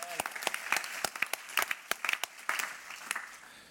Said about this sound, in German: Komm, das ist schon ein Applaus wert, oder?